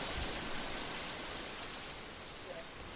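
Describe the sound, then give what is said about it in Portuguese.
A lone coconut palm's fronds rustle in the wind in a home backyard, a steady, soft, hissing wash of sound that carries on evenly for the whole few seconds with no clear pauses. “o chacoalhar do coqueiro do quintal de casa”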